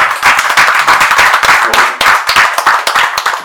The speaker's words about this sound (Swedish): Applåd!